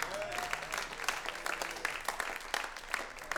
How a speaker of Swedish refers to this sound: Du lever inte längre jag, utan Kristus lever i mig. Ja, det är värt en applåd till Gud.